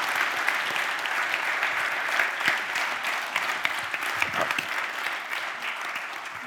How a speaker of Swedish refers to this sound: Här hör man ju bäcken. Nu förstår jag bäcken, vad du menar.